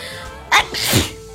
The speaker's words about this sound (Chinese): 哎呀，终于打出来这个喷嚏了，爽歪歪！